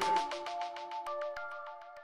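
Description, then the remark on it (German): A short, bright electronic jingle: rapid, evenly spaced plucked notes pulse over a sustained tone for about two seconds, clear, with no one speaking. “Jetzt gibt es auch so einen Jingle für den Schirisch Podcast, oder?”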